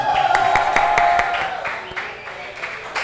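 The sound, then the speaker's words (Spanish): A single person claps steadily, about five claps a second, the sharp slaps gradually softening over a few seconds, with faint murmuring in the background. “La aplaudí porque, la, pensé que quedó bien en el balbodillo mismo, ¿verdad?”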